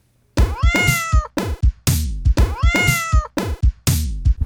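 A cat meows loudly in quick, repeated bursts: a long drawn-out meow followed by shorter, harsher cries, with the whole sequence heard twice in a row.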